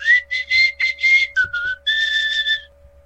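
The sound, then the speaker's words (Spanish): A tamale vendor's whistled waltz tune, as heard in the San Juan Bosco neighborhood: several sustained notes in short phrases, fairly loud, ending on one long held tone over a faint steady hum. No one speaks. “No, no, güey, traían un valsecito, güey, la de... Es como el silbidito, güey, la de...”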